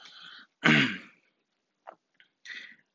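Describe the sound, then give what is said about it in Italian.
A person explaining property law in Italian coughs: a soft rasp, then one loud harsh cough, followed by a few quieter throat-clearing bursts, with no talking. “Allora, ripetendo, scusatemi la tosse”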